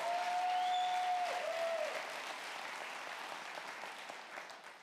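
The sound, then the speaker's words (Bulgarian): A large crowd claps steadily during a sermon, a dense wash of applause that gradually fades over several seconds, with a thin whistling tone sounding briefly near the start. “О, ако ръкопляскаш, ръкопляскай, като че ти вярваш в Божието Слово.”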